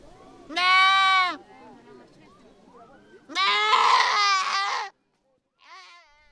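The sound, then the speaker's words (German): Goats bleat loudly, two long wavering calls followed by a shorter, fainter one, with a low background murmur between them; about two dozen goats tied up in the grass, to be handed out that day and vaccinated. “Noch stehen die etwa zwei Dutzend Ziegen, die heute verteilt werden, angebunden im Gras.”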